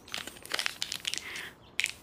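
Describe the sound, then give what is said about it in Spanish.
Crisp crinkling of a candy wrapper, with irregular bursts of crackling and a brief pause before a final sharp crumple. “Bote los papeles al basurero después.”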